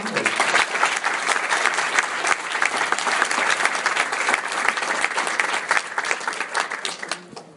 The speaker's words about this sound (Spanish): Vamos a darle un fuerte aplauso, por favor